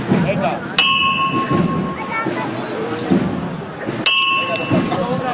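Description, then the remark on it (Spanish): A hammer strikes the bell of a religious procession float carrying a Christ figure twice, a few seconds apart, signalling the float to be lowered after turning out of the parish church of la Magdalena; each sharp clang leaves a bright ringing tone that fades, over the steady murmur of a large outdoor crowd. “Toque de martillo sobre la campana y el paso se arría.”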